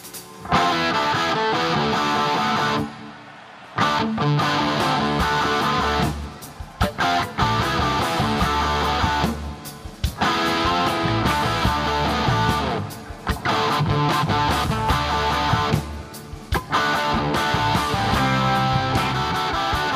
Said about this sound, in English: it was just a fantastic jam. I just love, I just love the riffs in the opening.